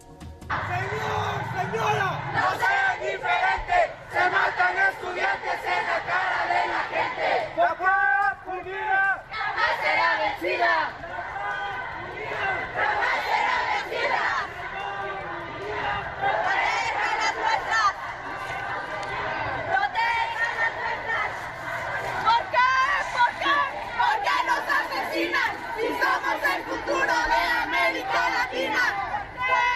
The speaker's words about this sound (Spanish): Más de mil chicos y chicas exigiendo justicia se reunieron con el gobernador eh, y bueno, pues eh, con acuerdos en torno a la seguridad alrededor de los planteles, pero sobre todo pues a exigir justicia. Así se escuchó la manifestación esta mañana.